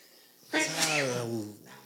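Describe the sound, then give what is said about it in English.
One loud sneeze bursts out suddenly and trails off into a drawn-out voiced exhale, with quiet room tone before and after. “I, gotta sneeze these fucking lights.”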